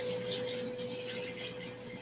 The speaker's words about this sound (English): Now I'm just going to cover this with water